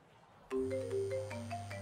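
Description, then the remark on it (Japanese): A phone ringtone starts abruptly and keeps playing for an incoming call from a home landline: a short electronic melody of stepping tones over a steady low hum with light rhythmic ticks, fairly loud, with no voices. “あごめん電話鳴ってるかあどうしたの番号通知自宅の固定電話から”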